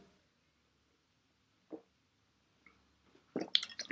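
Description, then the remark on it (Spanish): Someone takes a small sip of water: a soft slurp partway through, then a quick burst of wet mouth and swallowing sounds at the end, with near silence otherwise. “tomé un poquito de agua”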